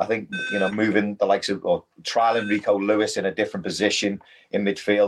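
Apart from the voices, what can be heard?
electronic beeping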